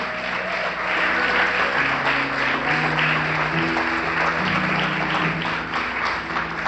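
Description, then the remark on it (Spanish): An audience at a church service claps together in a dense, steady wash of applause for the King of Kings, loud and sustained, with low sustained musical tones moving underneath and no clear voices on top. “Aleluya, den un aplauso al Rey de Reyes, vamos.”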